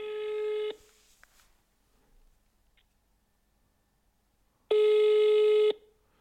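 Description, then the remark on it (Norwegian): Two steady ringback tones from a phone call, each about a second long and separated by a few seconds of near silence, clear and fairly loud with no talking. “Så vi får Skal vi se uh, Skal vi se om hun tar telefonen.”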